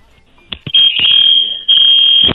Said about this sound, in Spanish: la, alarma de incendio del edificio se acaba de prender, así es que, Ay. Corre. Corre, amigo, sálvate.